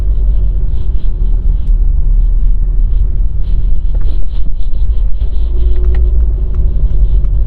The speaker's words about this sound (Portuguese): É um entra e sai de carro frenético, cara. Ainda o cara da BMW fica buzinando pra mim.